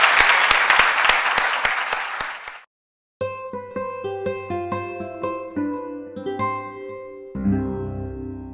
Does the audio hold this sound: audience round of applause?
yes